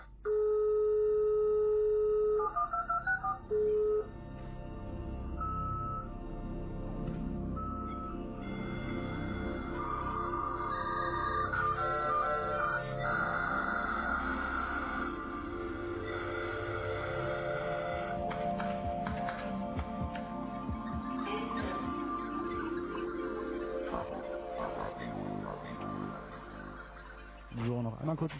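A radio jingle plays at steady volume for nearly half a minute, full of bright, sustained electronic tones and shifting melodic lines with a thin, band-limited, lo-fi quality.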